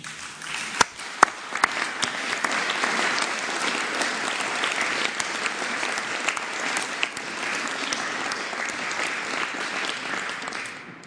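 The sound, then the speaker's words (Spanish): Sustained audience applause for the girls and boys invited on Children's Day in Mexico fills the whole stretch, a dense, steady wash of many hands clapping, with a few sharper individual claps standing out near the start before the ovation evens out. “Bueno, entonces vamos a aplaudirle a las niñas y a los niños.”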